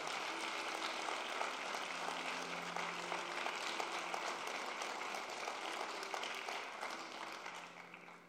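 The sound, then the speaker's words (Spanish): An audience applauds steadily for several seconds, a dense, even wash of many hands clapping that holds at a strong level before easing slightly at the end. “Vamos, si usted lo puede creer, déle ese aplauso fuerte.”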